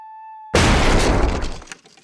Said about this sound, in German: So klingt es, wenn eine Tür eingetreten wird.